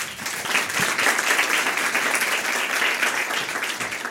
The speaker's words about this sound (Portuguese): Ela não vai cá estar hoje, mas um aplauso para ela também.